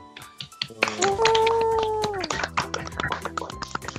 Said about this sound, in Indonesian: Wow, oh, mantap. Tepuk tangannya dulu dong.